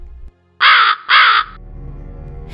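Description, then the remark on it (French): A crow caws twice in quick succession, two loud, harsh, rasping calls, followed by a quiet low rumble of background noise. “C'est alors qu'il entend le croassement d'un corbeau.”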